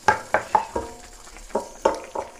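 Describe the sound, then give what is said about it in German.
Brussels sprouts begin sizzling in a frying pan that is just heating up, a soft steady hiss beneath repeated clinks and scrapes of a utensil stirring them, about three strokes per second, with no talking. “Ne, ich weiß gar nicht, warum die Pfanne noch nicht heiß ist. Ah ja, jetzt kommt's.”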